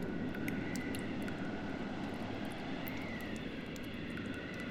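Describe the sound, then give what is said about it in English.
A steady, hollow rush of wind blowing through a cave roars continuously with a deep, full low end, broken only by faint, brief ticks high above. No one speaks. “You hear the sound of wind coming from one area of a cave.”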